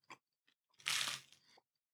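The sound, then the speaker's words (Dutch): A loud crunching bite of a hot, Surinamese-style snack flavoured with Madame Jeannette pepper, followed by a few seconds of crisp chewing, with a couple of smaller crackly bites just before it. Nobody speaks. “En, nu heb jij je mond leeg, dan kan ik nog een hapje.”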